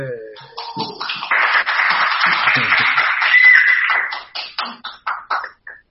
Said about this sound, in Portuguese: Oh, palmas aí.